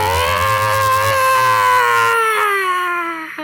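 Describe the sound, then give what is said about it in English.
A single drawn-out, growl-like animal howl with a raw, rough edge, answering an earlier howl near a mountain peak, sliding slowly downward in pitch over a few seconds. It is loud, with no talking. “This one is seems to be an answering howl to the first, and this is more of like a growl.”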